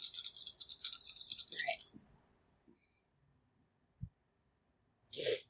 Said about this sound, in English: Um, I'm gonna re-roll two uh, agility dice uh, all right, that was uh another um one success.